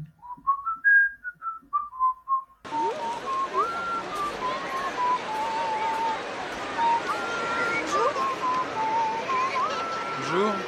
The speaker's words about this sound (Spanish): Que, que empieza justo con un silbidito, ¿no? Sí, que es el tarareo de la canción, ¿no?